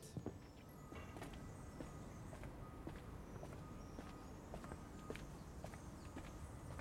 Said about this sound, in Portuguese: O som dos meus passos parece diferente.